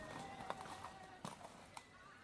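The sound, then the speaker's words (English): Horse hooves clip-clop at an unhurried, uneven pace as Mulan walks her new horse through a market, a few sharp knocks standing out against a steady busy background hum with faint indistinct voices. “Later, Mulan walks through the market with her new horse.”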